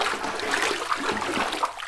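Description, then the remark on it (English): Water runs steadily into a bath of scented water with a soft, continuous rush, broken by a few small splashes, with no one speaking. “After a long bath in scented water, she made love to me on satin sheets, which, in my opinion, were too slippery.”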